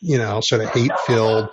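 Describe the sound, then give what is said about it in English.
A dog barks in the background, fairly faint, while a person talks steadily in the foreground over it. “I'm sorry that my dog's barking in the background.”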